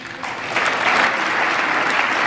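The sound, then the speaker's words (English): Sustained applause from a large audience after a speaker vows to veto any new sanctions bill from Congress that threatens talks with Iran, a dense steady patter of many hands clapping that swells quickly after the first half second and holds at a loud, even level with no voices. “Oh, that's getting applause.”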